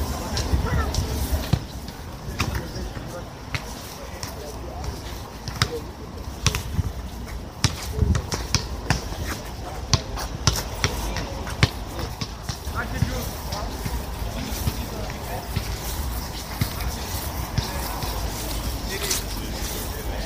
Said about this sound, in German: In einem kleinen Sportplatz, der von hohen Gitterzäunen umgeben ist, werden Ballspiele gespielt und im nahegelegenen Spielplatz tollen die Kinder. Aber hören Sie doch selbst, was hier gerade los ist.